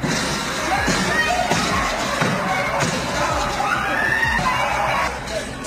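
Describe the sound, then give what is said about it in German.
A dense, chaotic crowd of about 1,500 restaurant guests screams and shouts continuously as they flee supposed gunshots, filmed by residents from across the street, with sharp impacts and bangs as men smash the restaurant windows with beer mugs, all loud before the noise drops slightly at the end. “Schreiende Menschen auf der Flucht vor vermeintlich fallenden Schüssen. Mit Bierkrügen schlagen einige Männer die Fenster der Gaststätte ein, um zu entkommen.”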